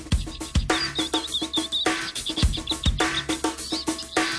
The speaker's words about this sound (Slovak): Spoznajte ma, lepšie som čižik spevavý.